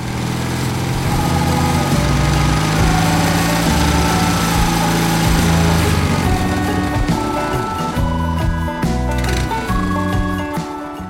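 A small motorcycle engine is started and runs loud, its buzzing drone shifting in pitch as the throttle is worked, with revving bursts toward the end. No voices are heard.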